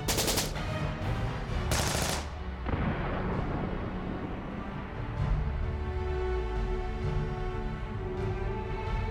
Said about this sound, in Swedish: Vilket de gjorde, medan bomber och skottsalvor slog ner runt om dem.